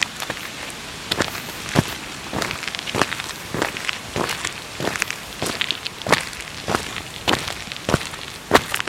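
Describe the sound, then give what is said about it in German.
Steady footsteps in running shoes with small studs on the soles on a tarred footpath, crisp, each step a short gritty scuff repeating at an even walking pace, with no voices. “Meine Schuhe haben auch noch so ein bisschen Stollen drunter, weil es so Laufschuhe ja. sind. Macht nochmal so ein extra satisfying Klang.”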